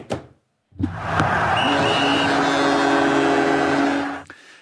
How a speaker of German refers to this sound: Das ist übrigens, wer das immer noch nicht dechiffriert hat, das Horn, was bläst, wenn Bremen Tor macht, ist in der Saison nicht so häufig zu hören